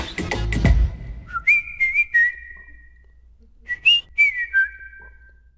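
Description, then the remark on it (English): A person whistles a bright, catchy melody in two short phrases of sliding, sustained notes, clear, with a brief low rumble at the start and no talking. “But I couldn't stop whistling. This catchy little tune, this catchy little tune got stuck in my head.”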